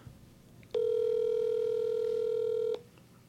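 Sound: outgoing phone call ringing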